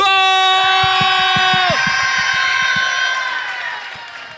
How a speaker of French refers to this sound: Alors du coup, pour euh, naître, je vais vous demander à trois de faire un maximum de bruit. 3, 2, 1,